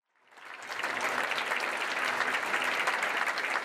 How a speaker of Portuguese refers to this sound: Aplausos totais, estou aqui aplaudindo.